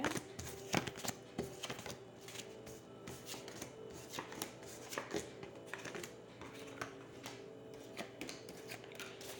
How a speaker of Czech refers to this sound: A já už se dívám na vaši fotku, míchám u toho karty a podíváme se teda spolu, jak se bude barvit to období 2022 plus leden 2023.